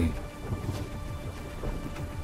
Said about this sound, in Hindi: देखते ही देखते ब्रिज भूमि का कोना कोना पानी से भर गया और रास्ते तक का पता चलना कठिन हो गया इस प्रकार मूसलाधार वर्षा से सब जगह ठंड हो गई